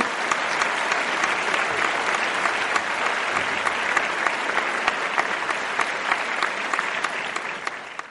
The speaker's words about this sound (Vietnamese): Xin hãy dành một tràng pháo tay thật nồng nhiệt chào đón